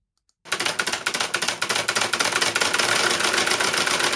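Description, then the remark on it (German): A small model crossplane engine starts up and runs with a rapid, rattling, uneven beat that settles into a steady buzzing drone, fairly loud, with no talking. “ein Crossplane-Motor”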